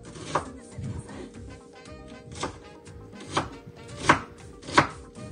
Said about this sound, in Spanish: Mira aquí, picando la cebollita. Todo esto lo vamos a sofreír.